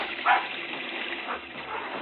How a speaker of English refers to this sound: Look, Butch has that man by the trousers. Oh, he kicked Butch. Hey, you don't just kick my dog.